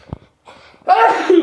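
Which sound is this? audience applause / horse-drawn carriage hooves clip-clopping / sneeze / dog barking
sneeze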